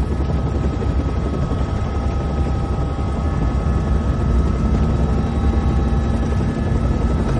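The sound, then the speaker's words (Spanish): A helicopter's engine and rotors roar steadily and loudly in flight, a dense low rumble with a faint whine riding on top, continuous throughout with no talking. “Dígame cómo funciona un reactor o haré que mis hombres lo tiren del helicóptero.”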